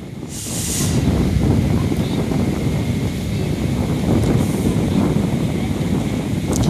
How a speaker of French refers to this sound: a un petit peu de vent, je cache. Euh, c'est pour ça que vous me voyez avec la main comme ça, parce que j'ai, le micro euh, juste, là, pour éviter qu'il y ait trop de vent. Donc forcément, vous m'entendez un peu moins bien.